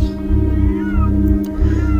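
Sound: cats yowling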